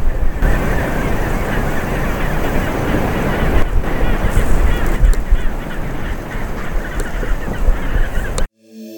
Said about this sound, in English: Okay, so I've got the uh, longer sound recorder and is picking up the sounds of the waves on the beach and the penguins on Penguin Island really clearly. So I'm going to leave you with a bit of that sound.